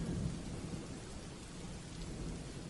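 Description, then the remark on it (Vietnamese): Steady rain pours down with a deep, continuous rumble of rolling thunder underneath, a dense wash of sound at an even, fairly soft level with no voices. “Bởi có rất nhiều việc đến bất chợt nên những ngày mưa thì tôi lại hay phải đi ra đường có lẽ vì thế mà con phố khi trời mưa càng gặp tôi nhiều hơn”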